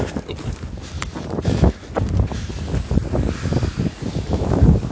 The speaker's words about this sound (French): Ah, excusez pour le vent. il y a bien du vent. On n'entend pas, pas très bien, mais ouais. Bien du vent.